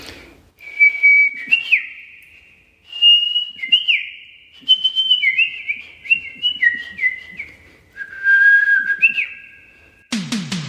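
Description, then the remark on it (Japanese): A person mouth-whistles an imitation of a Japanese bush warbler: clear whistles of long held notes breaking into quick upward flourishes, repeated over several phrases, ending with a sudden burst of noise. “ウグイスの場合は歯笛じゃなくて口笛なんですけど、はい、ちょっとやってみましょうか、はい”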